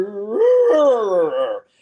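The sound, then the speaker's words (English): A voice imitates a dog's strange, drawn-out noise made towards a puppy: one continuous wavering groan that rises, wobbles and sags for about a second and a half, then cuts off. “the dog just starts making these crazy noises towards the puppy, like, and”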